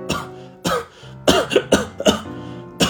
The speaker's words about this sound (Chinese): 紧接着，男人的连续咳嗽声，